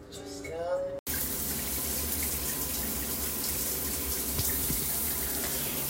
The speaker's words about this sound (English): It's currently 11:51 p.m. on Sunday, May 30th. I'm waiting for this shower to heat up.